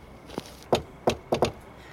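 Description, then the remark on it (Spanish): A faint tap, then four solid knocks on the neighbour's wooden fence in a backyard at night with a light breeze, the last two in quick succession, in an otherwise quiet setting. “Momentos después, oigo un golpe en la cerca del vecino.”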